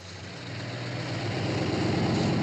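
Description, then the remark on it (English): A heavy truck engine idles with a steady, low rumble that builds slightly in loudness, alone with no voices. “A truck from Corby's plant would then take the shipment to government docks where a customs officer would sign the paperwork.”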